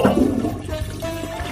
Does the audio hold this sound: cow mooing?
no